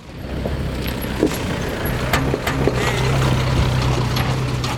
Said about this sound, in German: Ein klappriger Kleintransporter fährt über eine Hügellandschaft aus Restmüll. Die Ladefläche ist mit alten Holzlatten umbaut. Nach oben hin ist der Laster offen.